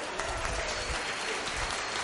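An audience applauds a woman as she is handed the microphone, a dense wash of many hands clapping at a fairly loud, even level throughout, with no voices standing out above it.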